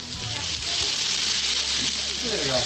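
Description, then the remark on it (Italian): Meat (pig's trotters, würstel sausages, horse meat and beef) sizzles steadily on a barbecue grill, a dense, continuous crackling hiss, with faint voices murmuring underneath. “noi continuiamo a farli. Senti il rumore, senti.”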